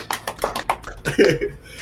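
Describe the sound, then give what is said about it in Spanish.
A handful of sharp hand claps in a quick, slightly uneven rhythm, fading into a brief burst of voice at the end. Fairly quiet overall, with no big crowd applause. “Fuerte el aplauso.”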